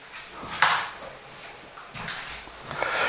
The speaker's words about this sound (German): Sag mal, jetzt macht er mir auch noch die Tür zu.